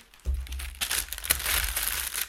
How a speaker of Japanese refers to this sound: クッキングシートを敷きます